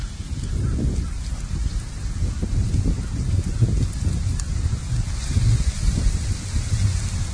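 Steady, heavy rain hisses throughout while strong wind buffets and rumbles underneath during a tornado in Florida, a continuous, fairly loud outdoor roar with no one speaking.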